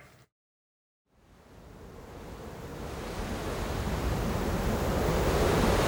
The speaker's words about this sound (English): Open the gate! Wind howls around you, lightning crackles in the sky. Open the gate! More howling. The cold has seeped into every bone.